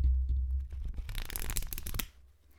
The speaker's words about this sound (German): Auf jeden Fall, ah, kleines ASMR im Buchgeblätter.